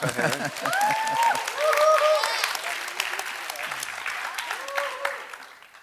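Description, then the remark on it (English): An audience claps steadily in sustained applause for the older people present who were alive in 1948, dense and fairly loud, with a few cheers and whoops rising over it before it slowly tapers off. “Okay, let's hear it for old people.”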